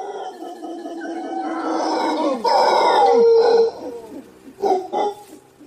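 howler monkey howling

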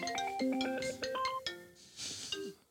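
phone ringtone

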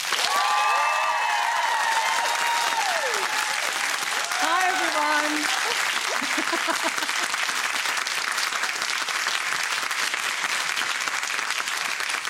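audience applause and cheering

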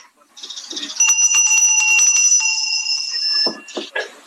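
bell ringing

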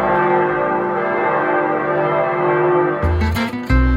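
church bells ringing

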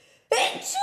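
sneeze

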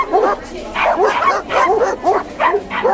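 dogs barking

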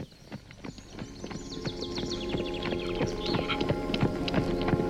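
horse hooves clip-clopping

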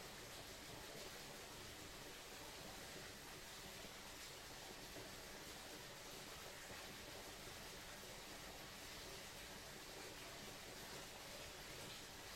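flowing mountain stream water

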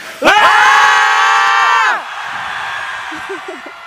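audience screaming

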